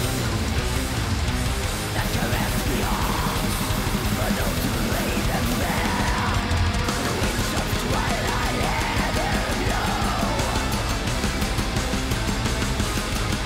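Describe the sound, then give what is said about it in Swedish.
Dense, loud metal plays nonstop, with rapid, frantic drumming pounding under distorted guitars and harsh, yelled vocals, the drumming sounding hurried and a little unsteady throughout. “Det är ivriga trummor, men det, de är också ganska skakiga.”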